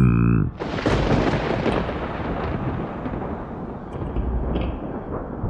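A sudden thunderclap with a flash of lightning bursts in after a brief tonal lead-in, then a loud, sustained roar of howling wind beating hard against the door of a house rumbles on steadily with no talking.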